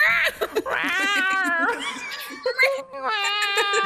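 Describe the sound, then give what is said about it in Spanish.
A person's voice imitates a cat yowling in long, wavering, high-pitched meows, several drawn-out cries in a row, fairly loud with brief breaks between them. “Mi, mi, voz pasó por demasiadas etapas y ya no maullo.”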